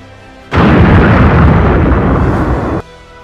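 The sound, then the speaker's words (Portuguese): A huge explosion sound effect bursts in suddenly and roars as a dense, loud blast and rumble for about two seconds, then cuts off abruptly. No one speaks over it. “Uma explosão gigantesca que te arremessa por uns 9 metros e tu cai embalando no chão.”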